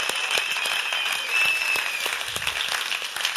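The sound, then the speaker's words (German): An audience at a sermon applauds steadily, many hands clapping in a dense, crackling wash that holds at an even level throughout, with no voices rising above it. “Geben wir all denen, die da zulassen, mal wirklich einen Applaus.”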